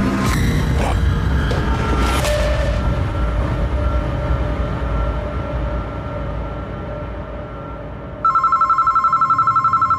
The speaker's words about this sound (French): Le téléphone a sonné. Sur le coup, j'étais en plein sommeil. Il était euh, vers 3h, 3h15 du matin.